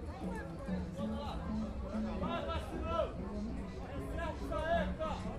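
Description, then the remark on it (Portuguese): Dense crowd chatter fills the busy Saturday street market Feira da Teixeira in Nova Holanda, many overlapping voices murmuring and calling at once in a steady hubbub with no single speaker standing out. “Como é sábado, a feira da Teixeira está rolando solta.”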